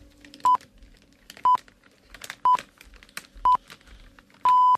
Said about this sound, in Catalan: Són dos quarts d'onze del matí. Som al suplement, som a Catalunya Ràdio. De seguida, aquests senyals horaris tan fantàstics i tan radiofònics a aquesta hora del suplement